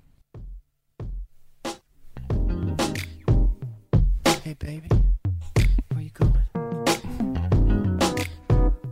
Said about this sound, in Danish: singlen hedder …, og jeg synes, at vi skal øh, høre et uddrag